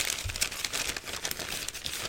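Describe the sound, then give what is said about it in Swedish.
Newspaper pages rustled by hand, as done on old radio sports broadcasts to illustrate a newspaper column, crinkle steadily for about two seconds, a dry papery crackle made of many quick irregular bursts at a moderate, even loudness, with no one talking. “Man prasslar mm. lite med tidningen så här.”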